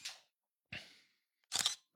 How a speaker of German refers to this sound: Schön geblitztes Foto.